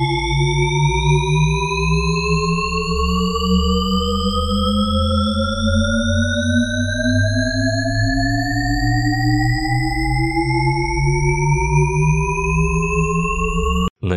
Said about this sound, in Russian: Еще интереснее обстоят дела с эффектом под названием тон Шепарда. Эта иллюзия создает эффект бесконечно повышающейся или понижающейся тональности. Вот, послушайте кусочек.